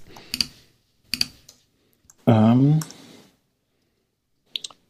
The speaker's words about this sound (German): Ja, mir fehlt die Übung. Ich, ich hämmer jetzt die ganze Zeit so drauf. Ja, du hast dieses MacBook mit dieser Butterfly-Tastatur, ne? Die, ja, genau, äh, muss die Tasten lösen. Ist sowieso extrem nervig, die Tastatur, ja.